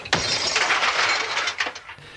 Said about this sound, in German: indem er halt äh, Glas zertrümmert hat auf seinem Hinterhof und das dann aufgenommen hat